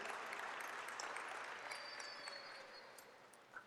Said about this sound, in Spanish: ¿Alguien puede aplaudir, por favor?